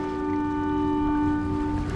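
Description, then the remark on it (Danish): The engine of the small fishing boat Ternen, setting out from the Swedish coast early on the morning of 20 January 1945, drones steadily with tonal hum over a rushing wash of strong wind and churning water as the boat rocks on the waves, loud and continuous throughout. “Det blæser voldsomt på vandet, og båden gynger og skråner på bølgerne.”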